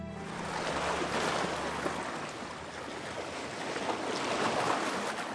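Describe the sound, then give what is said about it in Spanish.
A steady wash of ocean water rolls on with gentle swells in loudness, a continuous hiss of surf on the shore with no voices. “Y te invito a sentarte en la orilla del mar, dejando que la suave brisa y el sonido del océano te envuelvan.”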